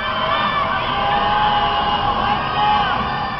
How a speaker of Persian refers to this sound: و شبها روی پشت بام یا تراس خانه هایشان الله اکبر میگوید این شبها شبهای اعتراض است و بخش دیگری از معترضان نیز همراه با شعار الله اکبر فریاد مرگ بر دیکتاتور سر میدهند